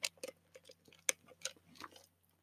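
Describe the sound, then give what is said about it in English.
Someone takes a quick sip of a cherry-flavored Blue Rebel drink from Dutch Bros: a short run of quiet, wet clicks and small slurps, irregular and soft, with no talking. “Yeah, if you can hear that. Well, that's just my Dutch bros take a sip of it before going on.”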